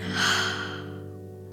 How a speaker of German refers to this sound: Atme einmal tief ein und wieder aus. Noch einmal tief einatmen und ausatmen. Und ein letztes Mal einatmen und wieder ausatmen.